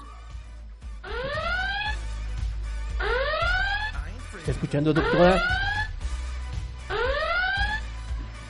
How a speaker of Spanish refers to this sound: Es la alarma nuclear del reactor. Parece que va a explotar.